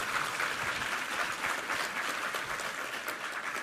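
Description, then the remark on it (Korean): A church audience claps together in sustained, dense applause of thanks to God after a Bible reading, a steady wash of many hands lasting a few seconds at fairly even loudness, with no voices standing out. “할렐루야 우리 하나님께 감사의 박수 올려드리겠습니다.”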